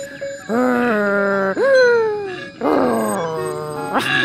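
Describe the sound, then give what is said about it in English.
A person imitates a koala bellow, the way a koala might yell at its friend, with loud, deep, groaning wails, about four drawn-out bursts in quick succession, with no other talk. “signing off like a koala might yell at its friend.”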